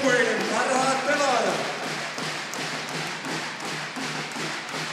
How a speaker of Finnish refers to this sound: Kaikki taputtavat hallissa, Kouvojen pelaajilla lippalakit kädessään.